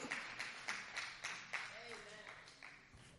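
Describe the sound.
An audience claps in a steady, rhythmic beat, with sharp, evenly spaced claps throughout and a faint voice rising briefly in the middle of the applause.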